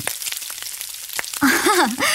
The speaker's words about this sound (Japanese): ベーコンだよベーコンそこのアメリカンダイナーベーコンを炒めてるんだよオープンキッチンで